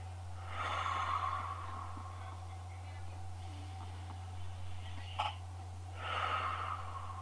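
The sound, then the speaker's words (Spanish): Two slow, breathy swells of air during a breathing exercise, a deep inhale followed by a long exhale, separated by a quiet pause over a steady low electrical hum. The breath is moderately loud. “Entonces, los invito a que una vez cómodos, empiecen a respirar, o bueno, continúen respirando, pero esta vez con exhalaciones, eh, con inhalación honda, exhalaciones largas.”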